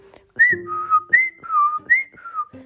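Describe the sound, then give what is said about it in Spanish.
Someone whistles a short tune, a clear two-note phrase that rises then drops, repeated three times in a steady rhythm with no talking. “Iba el zorro por el camino, silbando como de costumbre.”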